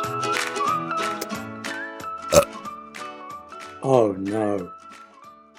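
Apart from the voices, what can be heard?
burp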